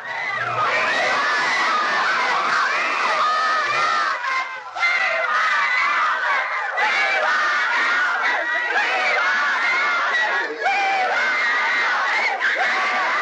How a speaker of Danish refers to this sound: Da … rammer scenen, bliver han mødt af et publikum, der skriger så højt, at Lionel var sikker på, at det ville flække taget midt over.